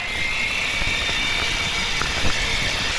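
An off-road electric wheelchair drives steadily, its motor giving a continuous high whine over a rough, crunching rumble from the ground, with a brief louder bump near the end. No one speaks.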